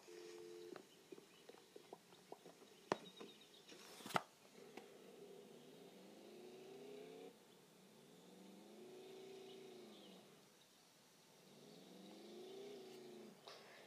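A video game car engine drones steadily, its pitch swelling and dropping as it revs while the car is driven up onto a roof, after a burst of sharp clicks and knocks at the start. No one speaks.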